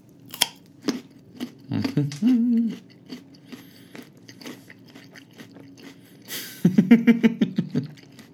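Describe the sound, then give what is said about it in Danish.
Crisp, crunchy bites and chewing of a raw carrot, with sharp snapping crunches followed by a rapid run of loud munching toward the end, and a couple of brief hums in between. “Lige om lidt, så er den her ikke mere. Så er den en del af mig.”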